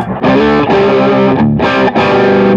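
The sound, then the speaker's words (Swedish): Electric guitar played through a Chinese copy of a Klon overdrive pedal plays loud, sustained chords with a warm, thick crunch, broken by brief gaps between strummed phrases; no one speaks. “Alltså, även om det är mer gain och att det är lite, uh, den har mer gain än Warm Audio ja. så låter den ju mycket fylligare liksom, och öppnare.”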